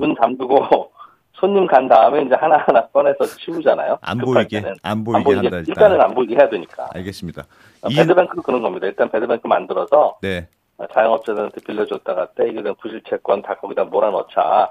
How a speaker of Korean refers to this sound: 통화 음질이 안 좋다고 해서 다시 좀 네. 연결할게요.